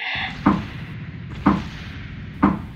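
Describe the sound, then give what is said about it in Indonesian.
Three evenly spaced knocks imitating someone knocking on a bedroom door, each a sharp wooden thud about a second apart, fairly loud with nothing else around them. “Nah, si Mawar itu ngedengar kalau misalkan di balik si pintu yang ada di kamarnya dia itu ada yang ngetok.”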